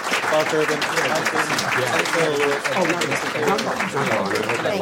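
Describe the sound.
Steady audience applause thanking a discussion panel lasts about five seconds, a dense, even clatter of many hands clapping, with a few voices murmuring faintly underneath.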